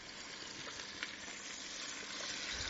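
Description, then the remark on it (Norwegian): Pieces of grouse sizzle in butter in a pan, a steady bright hiss with scattered little pops and crackles that swells slightly toward the end, with no one talking. “Altså, tvert eh, ørna traff smøret, begynner lukta å”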